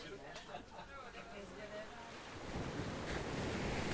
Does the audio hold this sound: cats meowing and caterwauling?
no